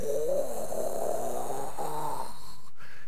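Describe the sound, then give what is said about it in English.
A person mimics a jet flying overhead near Mountain Home Air Force Base, heard while hunting antelope from a blind, with a sustained, breathy vocal roar that wavers in pitch for about three seconds, then cuts off abruptly. “I hear a jet”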